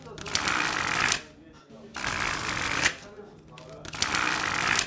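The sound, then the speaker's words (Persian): Three bursts of rapid, crackling card riffling as a deck of playing cards is shuffled, each lasting about a second, separated by short pauses with a quieter background murmur. Fairly loud. “هر وقت بر زدنم کافی بود بگو بسه”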